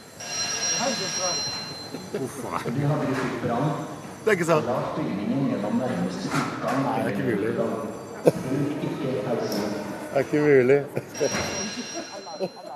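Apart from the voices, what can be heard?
fire alarm going off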